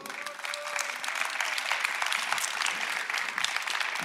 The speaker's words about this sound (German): Lass uns dieser Kreation Gottes mal einen Applaus geben.